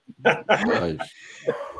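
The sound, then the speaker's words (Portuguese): The speaker's dogs bark and yelp in a quick cluster of sharp, high-pitched bursts, followed by a brief pause and one more short yap. “Desculpe, meus cachorros estão gritando, latindo aqui, vocês estão ouvindo, né?”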